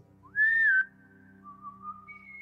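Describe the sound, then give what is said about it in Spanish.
A single loud whistle that rises quickly and holds a steady high note for about half a second, followed by fainter sustained tones trailing off. No one speaks. “Otro silbido.”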